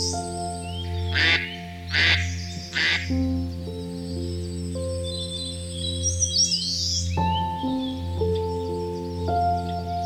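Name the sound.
duck quacking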